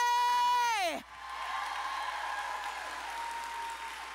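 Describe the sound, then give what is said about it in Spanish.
A church audience bursts into loud, steady applause during a sermon, carrying on for several seconds, opening with a sharp vocal whoop that slides downward in pitch just as the clapping starts. “Dale un aplauso fuerte.”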